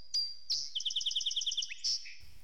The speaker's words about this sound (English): Simple, pure, what we call an acoustic sinus, flute like uh, tones, to modulated, percussive, sustained percussive like uh, frequency modulated tones. Our song sparrow certainly does that. Let's listen to that again.